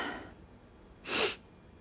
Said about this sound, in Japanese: やばいくしゃみが出そう